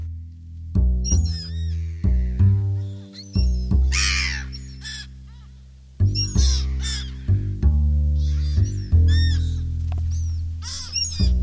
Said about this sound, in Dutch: Meeuwen vliegen over.